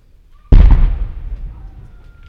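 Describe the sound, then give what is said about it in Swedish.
A single heavy cannon shot from a 15.2 saluting gun, fired as a salute at exactly 14:00, booms out suddenly, loud and deep, then rolls and echoes away slowly over about two seconds, heard from a few hundred metres away. “vi sitter ju några hundra meter från de här 15,2 pjäserna.”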